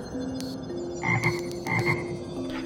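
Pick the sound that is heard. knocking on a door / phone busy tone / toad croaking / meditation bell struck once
toad croaking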